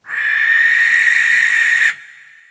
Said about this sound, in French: La chouette, qui niche dans le grenier de la ferme du village, c'est pas un grand-duc. C'est une chouette effraie. Et elle chante pas elle crie. Et ça donne ça.